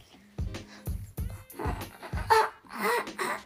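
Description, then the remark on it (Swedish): A voice imitates eerie, raspy breathing: a fairly loud series of harsh, pulsing breaths with throaty rattles, repeated in an uneven rhythm. “Något sånt där, alltså liksom så här, något andningsljud som jag tror jag tror mest att det är att det är ett barn som försöker ropa på hjälp inuti en själ som ropar på hjälp inne i dräkten.”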